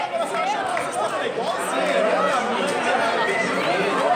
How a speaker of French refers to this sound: Quelques chants à l'honneur de l'Atlético Mineiro, équipe de Belo Horizonte.